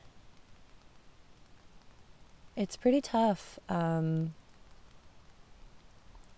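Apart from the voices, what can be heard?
rain falling on surfaces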